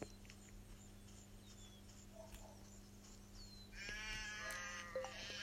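A low steady hum fills the background, then near the end a sheep bleats loudly, a wavering, drawn-out call lasting about a second.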